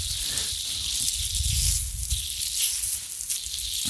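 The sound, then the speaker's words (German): A steady, bright hiss of water spraying from a garden hose onto a butterfly bush, continuous for the whole stretch with a low rumble underneath and small fluctuations in the spray. “ja, jetzt spritzt das wieder so.”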